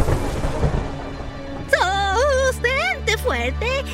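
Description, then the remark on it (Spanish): A low, rolling rumble of distant thunder fills the opening moments, then continues faintly underneath as a voice with sweeping, melodic pitch rises over it. “pero a lo lejos empezó a escuchar unos truenos.”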